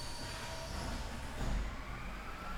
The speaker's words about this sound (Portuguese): Peraí que o, o, o caminhão de lixo tá me desconcentrando aqui ele ele tá alto aí pra vocês.